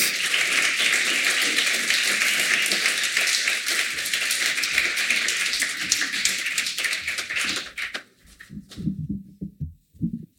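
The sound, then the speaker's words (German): Dense, steady applause from an audience as guests are invited onto the stage, a broad wash of many hands clapping for about eight seconds before it thins out quickly into a few scattered claps and fades. “Den Applaus nehmen wir gleich mit.”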